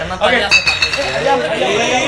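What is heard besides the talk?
glass clinking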